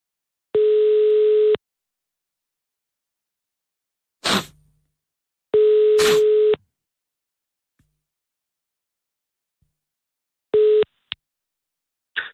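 A telephone ringback tone for a call to a mobile phone sounds three times, each a steady one-second beep separated by long silent gaps, with a couple of sharp clicks between rings; the call goes unanswered and the last ring is cut short.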